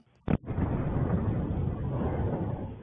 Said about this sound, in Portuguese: A suspeita é que a explosão tenha acontecido nesse apartamento duplex. A laje do forro ficou estufada. As imagens mostram a dimensão dos estragos: paredes quebradas, portas arrancadas, móveis revirados. Esta câmera registrou o momento da explosão.